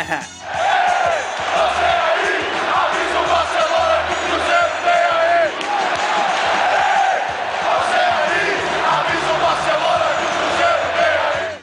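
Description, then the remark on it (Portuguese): A dense crowd of Cruzeiro football fans roars and chants continuously after a 0-0 first leg of the cup final, many voices shouting and whooping together at a loud, steady level for the whole stretch. “E após o 0 a 0 no jogo de ida, o pessoal da Raposa tava animado, até demais.”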